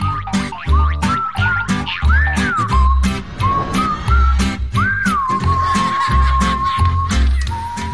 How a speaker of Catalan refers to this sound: reconeixeu la música, no? I tant! La millor sintonia de la història. No l'hem xiulat mai, eh?